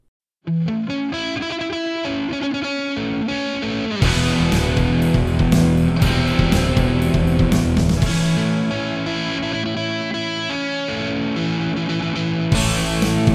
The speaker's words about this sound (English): And uh, you'll hear that nice little horse racing intro